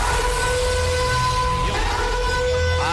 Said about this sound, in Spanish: ¡Atención! ¡Atención! Escucha, susto nos da, ¿Qué, pone la alarma esa, hombre? Eh, bueno, porque a partir de hoy, atentos todos, vuestro móvil puede empezar eh, a sonar, puede empezar a emitir un pitido yo espero que algo más suave que esto.